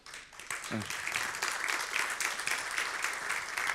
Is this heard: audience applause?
yes